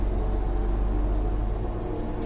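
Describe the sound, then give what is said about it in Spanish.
In a film scene, the inspector's car drives away from the Louvre pyramid in Paris, its engine rumbling steadily with a deep, low hum and a broad wash of road noise, holding an even loudness throughout with no voices. “El coche del inspector se marcha dejando a Landon delante de la pirámide de estructura metálica forrada de cristal del Louvre.”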